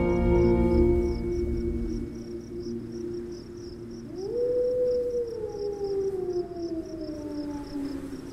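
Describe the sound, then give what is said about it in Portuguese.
Wolves howl in the distance, long drawn-out wavering tones that rise and slowly fall, while crickets chirp steadily in the background; no one speaks. “Fora os pequenos urvos de lobos ao fundo.”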